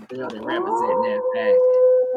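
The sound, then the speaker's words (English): A person imitates a wolf howl, a long sustained rising-then-steady tone held for about two seconds, loud, with other voices faintly mixed in. “I think I heard that wolf sound more than I heard the love bugs, man.”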